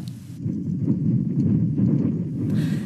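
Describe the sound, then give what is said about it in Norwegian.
Wind blowing steadily through a valley of rows of more than 700 small, cream-white, empty or half-finished castle-style houses in an empty village: a deep continuous rumble and roar with gusty buffeting, fairly loud throughout and with no voices. “Bare vinden blåser i denne dalen, der mer enn 700 små, kremhvite, tomme eller halvferdige eventyrslott står tett i tett i rad etter rad.”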